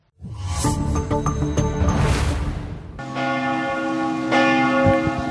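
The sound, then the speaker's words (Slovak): Large church bells of the basilica in Šaštín peal loudly and continuously, several bells overlapping in a rich, ringing clang with long sustained tones and no voices. “Toto sú zvony Šaštinskej baziliky, ktorá privíta pápeža 15.”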